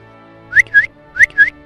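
Snowball's whistle signal, calling the farm animals to gather in the yard, sounds twice, each time as a pair of shrill notes: a quick upward-swooping tone followed by a steadier one, repeated in an even rhythm with no talking.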